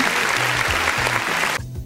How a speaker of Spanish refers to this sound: Agradezco que ya hay un plan de vacunación para México. La uh. vacuna contra el COVID-19, señoras y señores. Por fin, por fin. Vamos a dar un aplauso a esto, por favor.